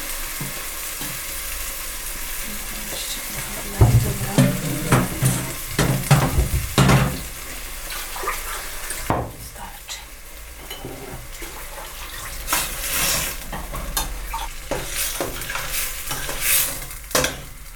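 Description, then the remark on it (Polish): Food sizzles and stews in a pan after a little water has been poured in, with a steady crackling hiss, broken by several sharp clinks and scrapes of stirring around the middle; no one speaks. “Za chwilę wleję szklankę wody i to się będzie dusiło.”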